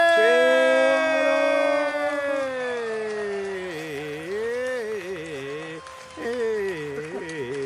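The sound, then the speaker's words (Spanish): A loud ambulance siren wails continuously, its pitch sliding slowly downward before breaking into a faster wavering warble, with a brief cut-off near the end. “ya me espanté porque ya viene, ya viene la ambulancia por mí, hermano, no, ya, ya, ya, cálmenla con esa ambulancia, esa sirena que no se calla nunca.”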